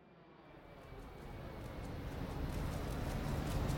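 airplane engine

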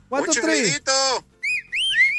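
short whistle

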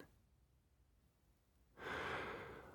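human yawn

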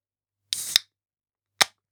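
beer bottle being opened

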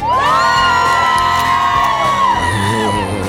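crowd cheering

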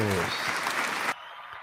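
audience applause

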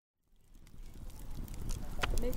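campfire crackling

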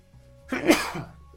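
sneeze

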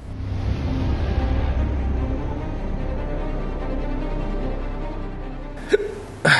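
hiccup

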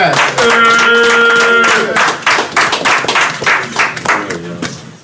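clapping and cheering

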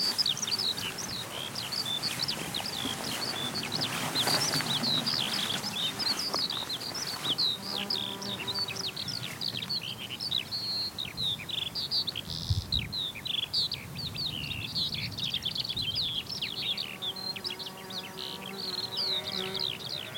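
skylark song

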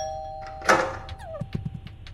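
doorbell ringing

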